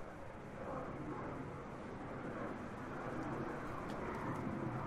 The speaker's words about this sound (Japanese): お今飛行機が飛んでおりますねどうでしょうか飛行機の音は聞こえますでしょうか